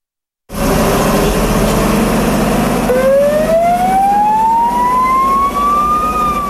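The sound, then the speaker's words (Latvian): An old fire engine siren on a volunteer firefighter's vehicle, more than 50 years old, in Gaviezē, South Kurzeme, winds up, its loud wail climbing slowly and steadily in pitch over the rumble of an idling engine. “Brīvprātīgais ugunsdzēsējs no Gaviezes Kārlis Šukulēs rūpējas par vairāk nekā 50 gadus vecu automašīnu.”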